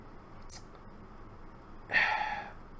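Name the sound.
imitated heavy breathing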